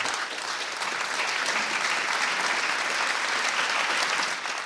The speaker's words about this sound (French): À la fin de cette première en Allemagne et en Europe, le public se lève pour applaudir. Certains essuient une larme. La standing ovation dure trois longues minutes, signe que le message est passé.